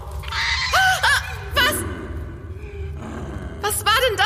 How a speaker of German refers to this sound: für ein Knurren und Fauchen. Man kann rein gar nichts erkennen.